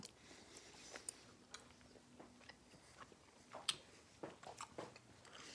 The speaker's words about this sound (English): It's gonna take a long time to chew this, so I'm gonna. I just spit it out. takes too long to chew.